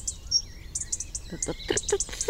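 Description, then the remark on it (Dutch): A European robin among trees gives its call rather than its song: a series of short, sharp, high ticks repeated at an uneven pace, over faint outdoor background noise. “Ah, daar was een roodborst. Heb je hem gehoord?”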